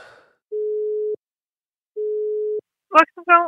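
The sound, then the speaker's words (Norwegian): A telephone line tone sounds as two steady, mid-pitched beeps separated by a pause as a call is placed to the Norwegian Ministry of Transport (Samferdselsdepartementet), followed by a brief burst of talking voices at the end. “Vi ringer sammen, mann.”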